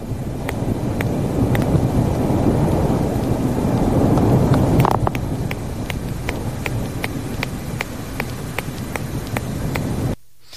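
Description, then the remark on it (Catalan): Beaked whale song: a steady train of sharp, evenly spaced clicks ticking over a constant underwater hiss and low rumble, the clicks sparse at first and then quickening into a regular rhythm. “existeix una balena dentada amb un cant molt semblant al dels catxalots, però no és tan intens. Parlem de la balena amb bec.”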